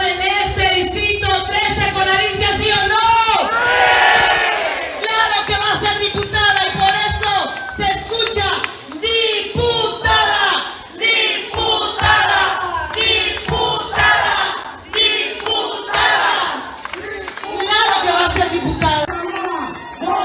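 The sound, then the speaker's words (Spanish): A large crowd at a candidate's visit to the town of Nicolás Bravo (kilometre 71 toward Escárcega), southern Quintana Roo, shouts "Sí" in unison, loud, with repeated surges of collective yelling and cheering that swell and fall over about twenty seconds, voices overlapping densely throughout. “¿En el distrito sí o no? ¡Sí! Pero más fuerte.”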